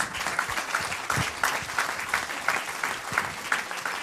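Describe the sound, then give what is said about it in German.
An audience at an event applauds steadily for about four seconds, a dense, even wash of many hands clapping with no voices standing out. “Euer äh, oh Applaus.”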